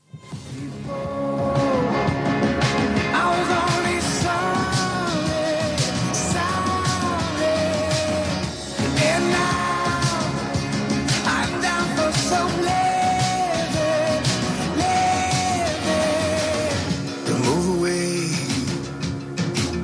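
A song plays continuously at full volume, with a male voice singing sustained, sliding melodic lines over a dense, steady backing of instruments, with a brief dip near the middle.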